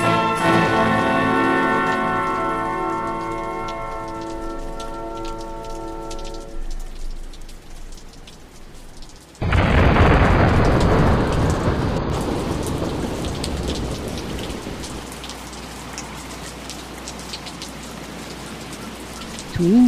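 Heavy rain pours down steadily after a sudden loud rumble of thunder, following a fading sustained tone in the opening seconds; the downpour continues as a dense, close hiss to the end.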